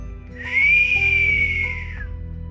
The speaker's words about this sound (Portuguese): Nessa hora, um assobio.